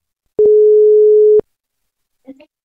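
A single steady ringback tone from a reporter's outgoing phone call in May 2022, about one second long, followed by silence and a brief faint sound near the end.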